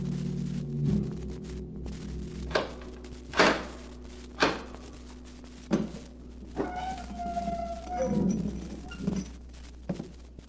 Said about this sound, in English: Once again, the keeper of the book has opened the ponderous door to the secret vault